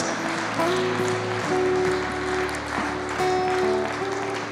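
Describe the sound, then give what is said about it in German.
An audience claps steadily in a dense, sustained burst of applause given to the Lord, with sustained musical tones ringing underneath the clapping throughout. “Lass uns doch auch mal dem Herrn einen Applaus geben, der uns ans Ziel bringt.”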